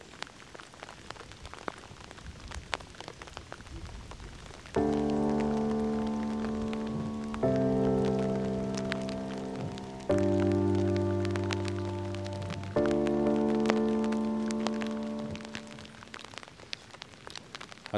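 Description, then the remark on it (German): Steady rain patters on a surface with scattered sharp drop ticks throughout, while four long, sustained musical chords swell in one after another through the middle; no one speaks. “Einfach mal zuhören, bisschen regen, bisschen genießen.”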